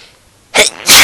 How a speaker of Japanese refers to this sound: すいませんくしゃみが